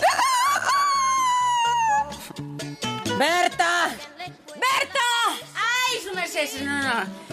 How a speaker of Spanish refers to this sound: El gallo de Doña Emperatriz saluda al vecindario